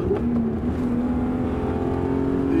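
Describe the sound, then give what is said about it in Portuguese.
A six-cylinder car engine rumbles steadily while driving on the road with the headlights on, a deep sustained drone with a low humming tone and no one talking over it. “A bordo de umas seis cilindros roncando bonito aqui.”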